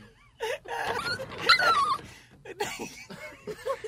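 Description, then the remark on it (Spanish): A dog whimpers and cries, with a string of high, wavering whines and snuffly, breathy bursts that rise and fall over a few seconds. “Eso que acaban de escuchar fue el sonido de Huevín llorando.”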